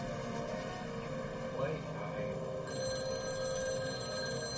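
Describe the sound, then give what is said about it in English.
A telephone rings steadily over a dense, low rumbling background, its bright tonal ringing sustained across the few seconds and shifting slightly partway through. “Less than an hour after the kidnapping, the phone rang.”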